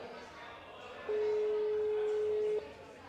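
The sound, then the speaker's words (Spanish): A telephone tone sounds once as a call is being placed, a steady electronic beep of about a second and a half, loud and clear over faint background murmur of voices. “vamos a intentar llamar a Raúl de Cañas Draga del Alta y vamos a contactar con Hermanos Libres a ver eh, si es posible que nos coja el teléfono”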